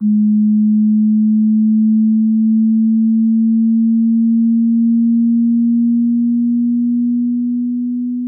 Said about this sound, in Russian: Наконец, на вершине улитки расположились клетки, реагирующие только на низкочастотные звуки — от 200 до 600 Гц. Вот такие.